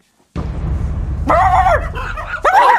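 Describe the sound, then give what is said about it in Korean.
Two drawn-out, yelping barks from a pack of neighbourhood dogs, drawn by the sound of someone urinating in the grass, ring out loud, one after the other, over a steady low rumble of background noise. “그때 개 짖는 소리를 듣고 대학 선후배들이 이게 무슨 소리냐며 건물 밖으로 다 뛰어나왔고”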